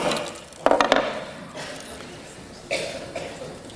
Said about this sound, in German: ich knacke heute hier ein paar Nüsse. Es gibt ganz verschiedene Geräte.